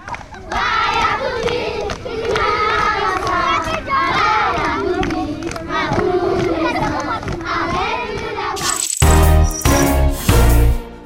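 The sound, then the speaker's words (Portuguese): Village ambience in Sierra Leone or Liberia, filled with a crowd of children shouting, calling and chattering loudly and continuously, their high voices overlapping, before cutting abruptly to a brief, different tonal sound at the end. “O som ambiente que ouvimos foi captado por este casal português na sua viagem à Serra Leoa e Libéria.”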